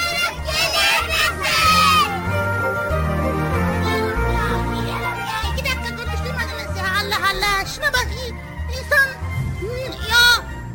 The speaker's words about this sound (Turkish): E, e, çocuklar biraz daha yüksek sesle bağıralım. Bizi dinliyormuş diğer tarafta.